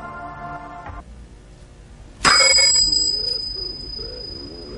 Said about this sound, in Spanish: toca el crótalo, se escucha un ruido y atrás de eso nosotros empezamos a escuchar como una cosita, algo raro, una... Un ruidito, ¿no?